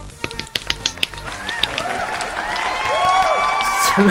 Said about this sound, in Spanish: Pero bueno, buen trabajo. aplauso para ella.